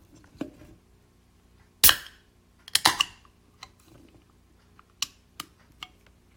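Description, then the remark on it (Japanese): A can of Suntory Kinmugi Lager, an autumn-flavour beer, is cracked open for a toast: a sharp pop of the pull tab, then a short burst of fizzing hiss, followed by a few faint clicks. “私はですね、この秋の味できました、えー、まずはサントリーの金麦ラガーをですね、えー、飲みたいと思いますので、はい。えー、皆さんにも聞こえると嬉しいんですが、”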